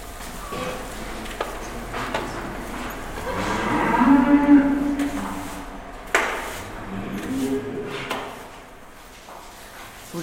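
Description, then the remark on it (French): Cows, mostly females with one bull, moo in a herd, one long, low bellow swelling up mid-clip with fainter lowing later, over a busy barnyard background with occasional wooden clunks. “aimez vos vaches.”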